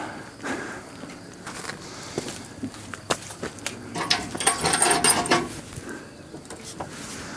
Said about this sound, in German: An dieser Kurbel haben wir gedreht und haben hier Wasser rausgeholt. Und es ist noch exakt dieser Eimer.